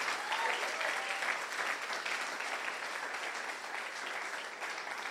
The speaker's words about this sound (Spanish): Si tú lo crees, dale un aplauso fuerte a Jesucristo. Vamos.